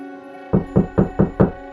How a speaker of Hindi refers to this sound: दरवाजे पर किसी जोर की दस्तक से नींद खुली